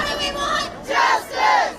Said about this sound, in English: Here in Louisville, protesters crying out for justice from the day into the night, frustrated and outraged by a grand jury's decision to make no direct charges in the fatal police shooting